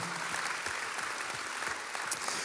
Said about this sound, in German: Und ich möchte ISF St. Gallen an der Stelle einfach Danke sagen und lasst ihnen einen Applaus geben.